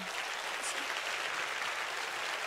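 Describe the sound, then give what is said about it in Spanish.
An audience claps steadily for a few seconds, a dense, even wash of many hands at moderate loudness with no voices over it. “Si usted quiere aplaudir, yo no sé.”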